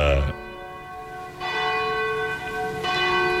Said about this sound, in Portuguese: Faltam 12 para as 9 da noite, hoje um pouquinho mais cedo. Momento em que bate o sino da Catedral da Senhora, da Nossa Senhora de Aparecida.